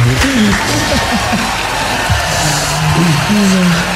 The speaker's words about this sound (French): Bravo les gars, on peut l'applaudir hein, parce qu'il a fait une belle perf hein, quand même.